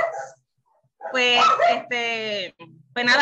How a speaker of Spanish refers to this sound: Pues ella, disculpa el ruido si escucha a los perritos este, ladrando.